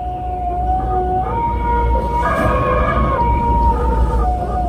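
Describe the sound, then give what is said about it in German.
The wind of Hurricane Delta howls without a break, a loud, steady roar with eerie wailing tones that slowly rise and fall in pitch, almost like a siren moaning over the rushing air. “In Erinnerung bleiben wird von Delta wohl vor allem das heulende Geräusch.”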